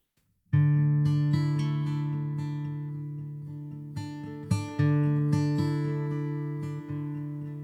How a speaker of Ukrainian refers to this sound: І користуючись нагодою, я запрошую нас послухати зараз одну колядку.